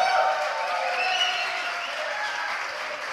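Steady audience applause, a dense wash of many hands clapping at an even level throughout, with no voices standing out above it.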